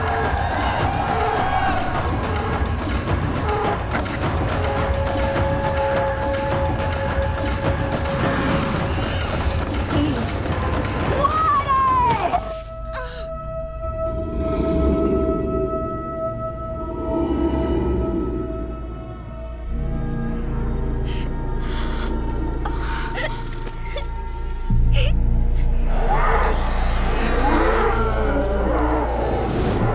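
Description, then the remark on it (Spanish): In a Narnia film scene, a crowd gathered at a witches' gathering roars and cheers loudly after the great cat has died, the piercing, sinister shriek of Tilda Swinton's character rising out of the din midway, followed by sustained eerie tones and renewed bursts of shouting voices. “Tilda Swinton con el gran gato ha muerto, su grito maléfico en ese gran aquelarre.”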